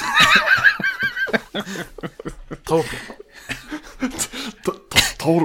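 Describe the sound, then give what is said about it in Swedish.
Coughing fits from a man who got water down his throat, mixed with sputtering and strained, laughing vocal sounds, loud and irregular throughout, with brief bursts of talk between the coughs. “Ja, jag satte vatten i halsen.”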